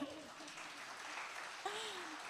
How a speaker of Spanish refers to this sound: Un aplauso a los modelos.